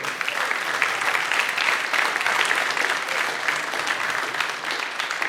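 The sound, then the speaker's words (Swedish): Steady, dense applause from an audience for a person celebrating today fills the whole stretch, many hands clapping at once in a continuous wash of sound with no pauses and no talking. “Ska vi ge Mikael Bister en applåd?”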